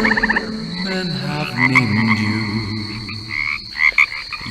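A classic crooner-style song, the opening song of a film about New Orleans on Prime Video, plays through heavy distortion, its warped, wavering tones and a thin high whine running steadily at moderate volume with a few brief brighter swells.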